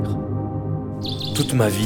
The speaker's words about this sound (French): Pourquoi tous les sons de la forêt sont ici